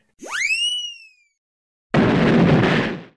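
In a short comedy skit, a rising whistle, like something launching, fades out, then after a short pause a loud explosion sound effect booms and rumbles for about a second. No voices are heard.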